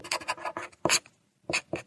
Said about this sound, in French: En fait, j'utilise mon temps de transport à lire. Donc, le son, c'est les pages qui se tournent. Et éventuellement, euh, le bruit du crayon à papier sur la page.